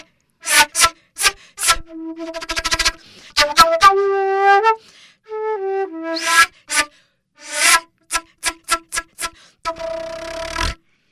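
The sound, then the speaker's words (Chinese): A flute played in an angry, aggressive manner to show that the flute can express emotions: harsh breathy stabs and sharp staccato bursts, a few held notes sliding downward, then rapid jabbing notes ending in a noisy, overblown blast. “我们现在要听到了哦， 他把他的百万的长笛带来了。”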